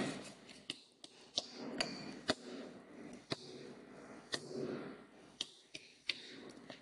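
Sharp taps on a school's all-campus microphone with the volume turned up high, about a dozen knocks in an uneven, patterned Morse code rhythm, with short groups and pauses over a low murmuring background.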